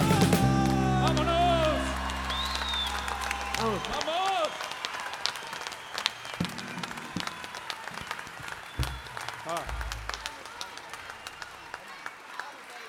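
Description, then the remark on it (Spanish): A held sung chord from the murga Equipo Ja ends their performance, and the audience breaks into steady, dense applause for the murga that carries on for about nine seconds at moderate loudness, thinning slightly toward the end. “Oh, oh, oh, este aplauso es para ustedes de la murga equipo Ja.”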